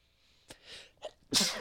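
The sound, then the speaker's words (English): A few sharp, hitching inhales build up before one loud sneeze bursts out at the end, with no talking. “bless you there it is if you look into a bright light yeah, it'll help you sneeze hmm.”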